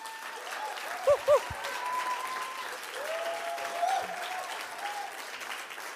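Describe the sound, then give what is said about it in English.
A church audience claps in a steady, sustained round of applause for the church's leader lasting several seconds, with a few louder thumps early on and faint voices mixed into the dense clapping. “So I just want to give you a round of applause as well.”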